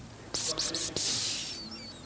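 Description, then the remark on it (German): A steady, high-pitched chirring of crickets in a garden on a summer evening runs through the background, with a few brief breathy hissing bursts near the start passing over it. “Hört sie die Grillen im Hintergrund?”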